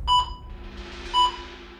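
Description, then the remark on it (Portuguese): An ICU vital signs monitor in a hospital intensive care unit, monitoring admitted patients' vital signs, beeps twice, clear mid-pitched electronic tones about a second apart, over a steady low hum of room noise with no one speaking. “É o barulho que se escuta numa UTI, os bips que vêm dos aparelhos que monitoram os sinais vitais dos pacientes internados.”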